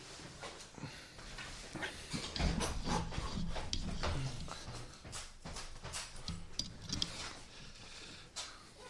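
A large janitor's bunch of keys jingles and clatters in uneven bursts as the wearer bounces on a trampoline, fairly loud, with metallic clinks repeating for several seconds and no talking.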